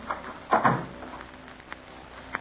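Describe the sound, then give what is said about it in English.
A door swings shut with a hollow thud and a brief rattle, followed by a couple of small faint clicks amid otherwise quiet surroundings. “I closed the door.”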